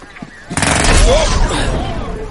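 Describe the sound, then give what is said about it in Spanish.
Pneumatic jackhammers start up after a quiet half-second, a loud, rapid, rattling stream of blows that continues steadily to the end, with a faint voice-like sound briefly under the din. “Los martillos neumáticos se rompen.”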